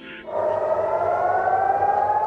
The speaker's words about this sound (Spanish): Las sirenas siguen sonando día y noche en las principales ciudades israelíes.